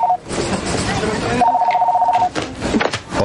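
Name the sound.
telephone ringing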